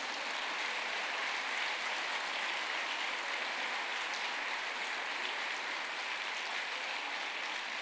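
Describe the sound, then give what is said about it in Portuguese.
An audience at a church service, standing in place, applauds the name of Jesus: a dense, unbroken wash of many hands clapping at once that holds at an even level for the full stretch, with no voices standing out. “Aplauda o nome de Jesus, queridos.”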